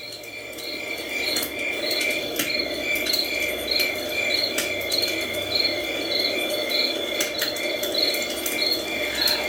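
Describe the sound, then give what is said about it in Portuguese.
Dense night insect chorus, crickets trilling steadily in pulsing repeated chirps over a soft, continuous forest hum, with no voices and an even, moderately quiet level throughout. “Só o som da floresta que se ouvia naquele momento.”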